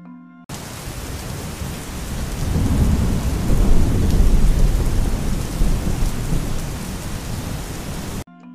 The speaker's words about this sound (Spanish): Estaba lo suficiente cerca como para escuchar su respiración y cada vez que avanzaba llovía más fuerte.